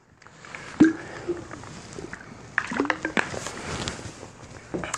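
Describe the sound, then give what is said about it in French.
Someone takes a sip of a drink: a soft slurp and a few small wet clicks and swallows, with quiet breathing and faint liquid noises in between. No one speaks. “Juste reprendre, mon souffle un peu, prendre une gorgée.”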